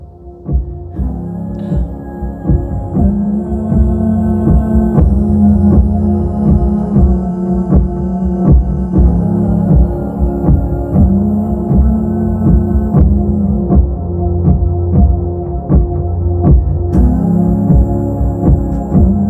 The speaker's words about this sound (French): on écoute un petit extrait de … en concert il y a très peu de temps euh, à Tours